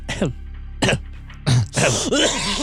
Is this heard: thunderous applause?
no